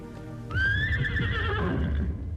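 A horse that has not yet been caught lets out a loud, shrill whinny in thick fog, rising and wavering for about two seconds before trailing off, with a low rumble of movement underneath.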